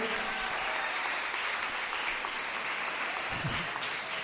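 Sustained audience applause, a dense steady wash of many hands clapping at a fairly even loudness throughout, with no voices standing out.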